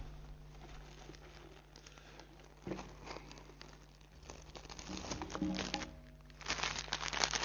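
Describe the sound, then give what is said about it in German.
A plastic bag of soil is handled and opened, giving a steady run of crinkling and rustling that swells louder toward the end, with no talking. “Das ist zum Glück in einer Tüte drin, denn es ist Erde.”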